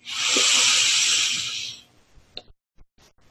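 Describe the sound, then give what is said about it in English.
A slow, deep breath drawn in during a breathing practice: a steady, airy hiss lasting nearly two seconds, then silence broken by a few faint, soft clicks. “And let us finish this practice with three breaths together, breathing in”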